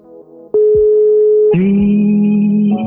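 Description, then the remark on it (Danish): A loud, steady electronic telephone tone sounds, switching abruptly between sustained pitches in a few segments, as a call to Italy is placed and connects, with no talking. “Så lad os ringe til landsholdsspilleren Peter Ankersen i Italien.”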